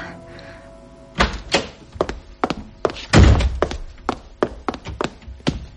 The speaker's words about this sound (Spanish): Mimi abrió la puerta del vestíbulo.